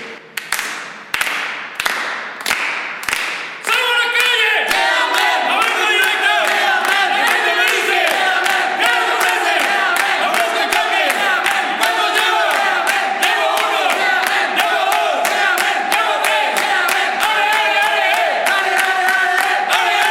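A team of salespeople chants a loud cheer together before going out onto the streets to sell, opening with several rhythmic claps or stomps, then sustained shouting voices in unison, punctuated by steady beats.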